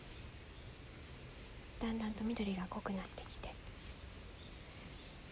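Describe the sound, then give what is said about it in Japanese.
A faint, steady rush of flowing water on a mountainside runs through the whole recording, continuous, with a soft voice speaking briefly over it in the middle; the weather is cloudy after earlier rain. “今はまたお決まりの山の中腹に来ていまして水の音が少し聞こえると思います今曇ってるのでちょっとあとさっき雨が降っていたのもあって”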